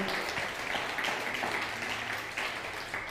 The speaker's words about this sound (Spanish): Un fuerte aplauso a Argentina y a Guatemala.